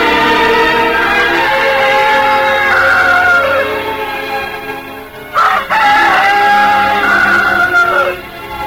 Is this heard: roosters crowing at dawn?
yes